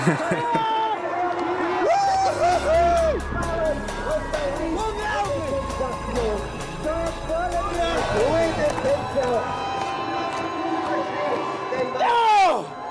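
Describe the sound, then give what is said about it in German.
Spectators at a 2007 ski race cheer loudly and without pause, a dense crowd roar broken by rising shouts and whoops, with sharp clapping or rattling noises throughout and a final surge of yelling. “noch mit Zuschauern damals.”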